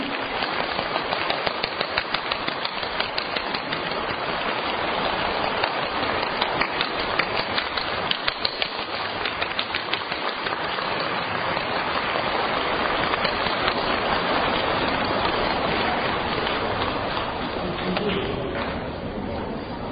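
Audience applause inviting Lu Junhong, station director, to receive a silk banner presented by fellow practitioners: a dense, steady crackle of many hands clapping together, loud and continuous for the whole stretch, easing slightly toward the end, with no clear voices.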